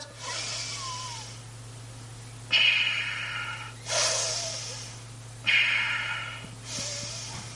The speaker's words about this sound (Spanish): Entonces es Kapalabhati. Es exhalando, exhalando, exhalando.